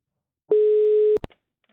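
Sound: telephone ringback tone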